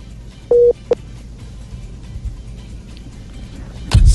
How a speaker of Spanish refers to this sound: ahí hemos perdido la comunicación. Se cae la comunicación con Bueno, la llamada se cayó.